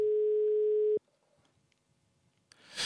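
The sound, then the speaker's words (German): A single steady telephone ringing tone of an outgoing call from the Rheinzeitung newsroom to a local football referee sounds loudly for about a second and stops abruptly, followed by a quiet line with faint crackle and a burst of hiss at the end. “Wir haben ihn angerufen, um uns das nochmal genauer erklären zu lassen.”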